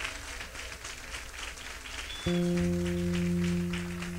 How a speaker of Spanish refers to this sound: Dele ese aplauso a Cristo otra vez en esta noche.